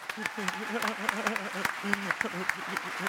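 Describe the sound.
Scattered clapping from a crowd, sharp irregular claps popping out over a steady wash, with voices talking and cheering underneath throughout.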